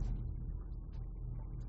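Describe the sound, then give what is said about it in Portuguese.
A car with very bad, worn suspension: a low, steady rumble with loose clattering and rattling on top, like worn suspension shaking over a rough road, loud and continuous throughout with no voices. “que barulheira é essa nesse carro? É, é a suspensão que tá muito ruim.”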